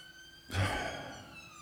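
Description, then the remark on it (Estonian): A faint emergency-vehicle siren holds a steady, high tone throughout as someone is being taken away. Partway through, a louder breathy rush, like a sigh, briefly covers it. No one speaks. “näed, keegi viiakse ära, kuskil ikka taotakse, noh.”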